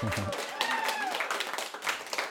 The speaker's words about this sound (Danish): Og jeg vil sige tak til publikum, fordi I vil øh, lytte med. I må godt lige klappe og